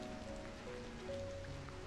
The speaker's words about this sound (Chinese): 听到下雨的声音，好像睡觉。